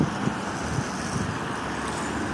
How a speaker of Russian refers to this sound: Потом машины шумят.